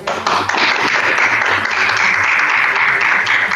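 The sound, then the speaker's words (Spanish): A crowd applauds steadily for a maestro at the close of his talk, dense overlapping claps forming a continuous loud wash of noise that holds evenly for several seconds, with a faint low hum underneath. “Un aplauso, por favor.”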